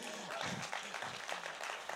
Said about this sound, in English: but round of applause for all of them.